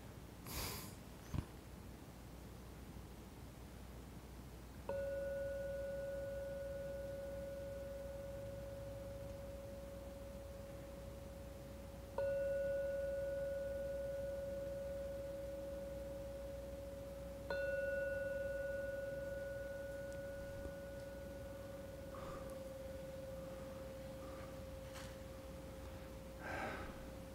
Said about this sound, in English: I'm now going to ring the gong three times to end the meditation. Please don't open the eyes yet. Wait for the wait for the gong to finish sounding for the third time, and then slowly Open your eyes.